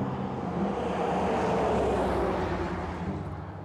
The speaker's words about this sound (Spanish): Vamos a escuchar este carrito que viene recio.